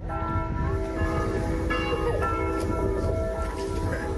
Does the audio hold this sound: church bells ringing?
yes